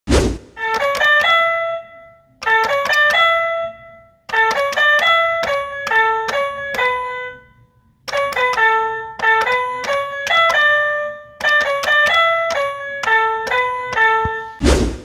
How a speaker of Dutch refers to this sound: Eh, die kleine van hem heeft zo'n heel vervelend pianootje. Weet je wel, zo'n heel goedkoop dingetje van een paar euro.